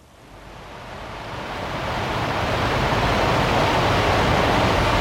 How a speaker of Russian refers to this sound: Это, вообще не из этого мира. Это жесть. Ниагарский водопад звучит так.